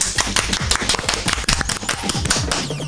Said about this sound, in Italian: Aspetta, aspetta, metto l'applauso. che eviterei. Metto l'effetto applauso a prete.